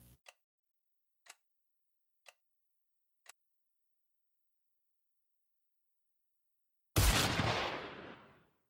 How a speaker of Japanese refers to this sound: 廊下から銃声が鳴り響きます。今の銃声じゃねえか、おい。